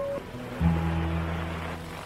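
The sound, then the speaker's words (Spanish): A steady, droning engine hum of a small propeller plane in flight, suffering a mechanical failure, with low buzzing tones that shift and swell slightly partway through, continuous, with no voices. “en 1963, volaba en una avioneta cuando ésta sufrió un desperfecto mecánico.”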